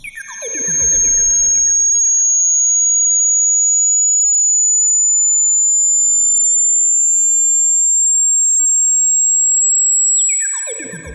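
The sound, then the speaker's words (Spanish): A high-pitched hearing test tone: one pure, piercing whine held steadily for about ten seconds, creeping very slightly upward in pitch, framed by brief bursts of noisy sound at the start and end. “Resulta que si usted es menor de 40 años, va a poder escuchar esta frecuencia.”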